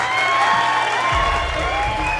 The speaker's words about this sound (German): Der Raum jubelt.